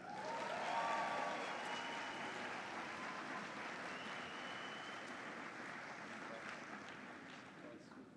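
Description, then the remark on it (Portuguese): An audience claps steadily for about eight seconds to welcome an invited couple, a dense crackling wash of many hands that peaks early and then slowly thins, with some voices mixed into the applause. “Acho que as palmas foram poucas.”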